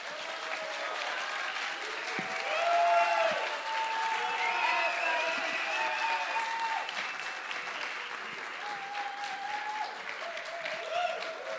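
Steady audience applause for a live band, a dense wash of clapping with scattered cheers and whistles, sustained and fairly loud for the whole stretch without easing off.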